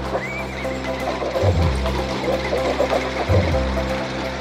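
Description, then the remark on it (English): At a race of tractors against horses plowing fields on a roughly 100-degree day, a horse whinnies near the start, followed by hooves clip-clopping, all over a steady low mechanical rumble that swells in two heavier bursts. No one speaks. “So the tractors and horses lined up for the race.”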